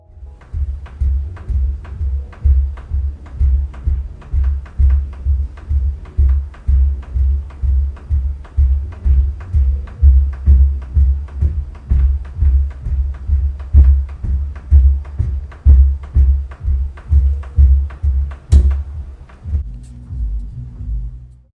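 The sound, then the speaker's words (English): Repeated heavy thuds from neighbors jumping around on the floor upstairs, recorded by the resident below, a fast, steady pounding of deep low booms that continues for about twenty seconds, then stops. “You know you've got neighbors below you and you're jumping around like that upstairs.”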